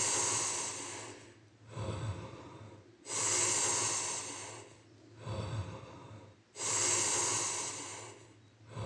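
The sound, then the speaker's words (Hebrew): Deep, full breaths in and out repeat in a steady rhythm during a count of ten full breaths, the belly moving, each long airy inhale followed by a rushing exhale, fairly loud, with no talking. “להמשיך לנשום, לחזור לכאן, ועוד עשר נשימות מלאות לראש.”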